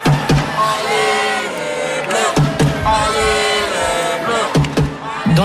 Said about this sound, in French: le Carpentier, ce n'est pas le Stade de France, mais depuis jeudi, les Bleus sont suivis par une cohorte de supporters bien bruyants.